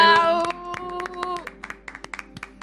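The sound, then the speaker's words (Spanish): Scattered, irregular hand claps from a small group on a radio programme, congratulating a guest on becoming a doctor in theology, crisp and fairly loud, with a sustained tonal chord underneath for the first second and a half before the clapping continues alone and thins out. “Un aplauso para”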